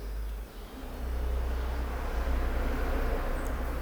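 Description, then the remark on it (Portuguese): A steady low rumble of traffic swells after the first second and holds, a car passing by on the street outside, with no talking. “Tá vendo? Isso daí foi carro, tá ligado? É, faz um barulho dos infernos.”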